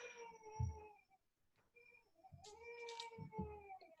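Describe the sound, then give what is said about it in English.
A house cat having a nightmare yowls in two long, wailing, baby-like cries with a short pause between them, loud, with no talking over it. “Sorry, that was a cat.”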